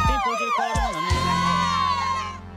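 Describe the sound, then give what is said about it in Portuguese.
A crowd of fans screams and cheers at a live show on a promenade, many high voices overlapping in a loud, sustained roar that eases slightly toward the end. “Tá, tá um sucesso lá, né? os fãs gritando lá.”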